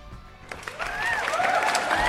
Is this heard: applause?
yes